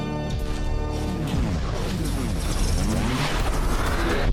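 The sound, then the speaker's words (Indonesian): A loud, dramatic studio door-opening sound effect: a long groaning creak that swells into a dense, rumbling crash-like wash, filling the whole few seconds with no voices. “Pintu studio telah terbuka.”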